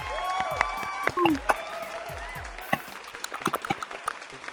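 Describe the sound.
A few people clap in scattered, uneven bursts that pick up toward the end, after some high whistled or cheering voices at the start; the claps are sharp but fairly light.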